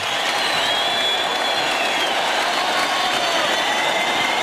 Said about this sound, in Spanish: Pues ahí están los medios recibiendo la ovación Emilio de Justo.